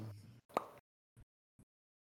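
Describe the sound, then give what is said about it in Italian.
A beer bottle is uncapped with one sharp pop, preceded by a brief rustling hiss. A couple of faint clicks follow in near silence, and nobody speaks. “Gliela eh, stappo.”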